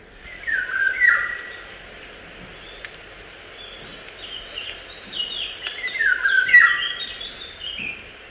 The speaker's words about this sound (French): Bon, je vais vous faire écouter un loriot. Il est mélodieux et majestueux. Voilà. Il n'est pas long le chant, mais il est, très flûté.